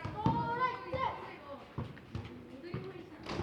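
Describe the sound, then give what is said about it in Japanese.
Lively voices of nearly 20 children chatter and call out in a small, crowded park, some running a relay, with occasional thumps like a ball bouncing, many kids playing together outdoors. “なんかこの南南に楠木公園は決して大きいと言える公園じゃないですけどその公園に多分20人弱の子供が所狭しとなんか遊んでいて”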